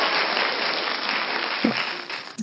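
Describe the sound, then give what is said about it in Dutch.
Steady, dense applause from many hands clapping together, a continuous crackling wash that holds at an even level for a few seconds before tapering off. “Klap, klap, Yay!”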